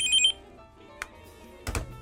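A short electronic telephone ring sounds at the start and cuts off quickly, followed by a small click and then a brief clatter, like a handset being picked up. No one speaks.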